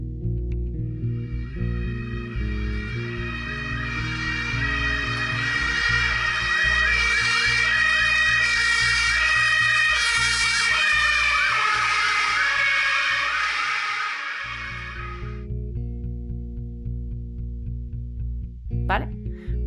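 An ambulance siren wails in a repeating up-and-down pattern, growing louder as it approaches and fading as it passes, over a steady low rumble, then cuts out near the end.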